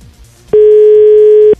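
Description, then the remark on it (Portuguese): A single loud, steady telephone ringback tone of an outgoing prank call sounds for about a second at one constant pitch, rising abruptly and cutting off cleanly after a quiet lead-in with faint background sound. “Tá chamando, vamos lá.”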